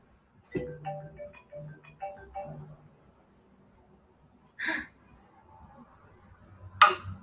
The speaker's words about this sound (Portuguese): É, não, é que tá tocando meu é, telefone.